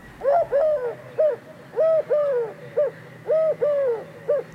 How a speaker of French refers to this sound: Alors, cette fameuse tourterelle turque qui m'a induit en erreur, elle fait ça